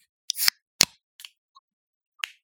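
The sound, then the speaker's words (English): A can of purple blueberry beer is cracked open: a sharp metallic pop with a brief fizzy hiss, followed by a few lighter clicks and taps from handling the can, with no talking. “Let us crack”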